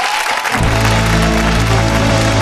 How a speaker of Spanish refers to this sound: Gracias, compañero. Un aplauso para ellos, amigos.